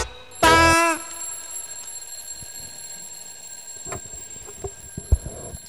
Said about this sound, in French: Et fébrile, le vieux crocodile maudit l'horloger qui a confectionné ce modèle de réveil au tic-tac éternel qui maintenant sonne chaque fois à l'heure des repas.